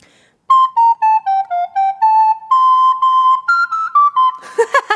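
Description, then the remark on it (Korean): A recorder is played on the show Gayo Gwangjang, a simple tune of about a dozen short, clear notes, dipping slightly and then climbing higher, before ending in a rough, breathy squeak. “리코더로 발바닥 뗐지 해요. 자, 잠시 후에요. 리코더, 자, 들어옵니다.”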